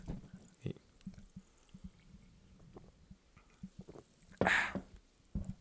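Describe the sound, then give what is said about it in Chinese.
Sparkling water being poured for a toast, with soft, scattered knocks and a faint trickle, then a loud, bright fizzing hiss near the end, followed by a short thump. No one speaks. “可是，在开始之前呢，我们还是要用气泡水来给大家来干几杯哟，干几杯哟。”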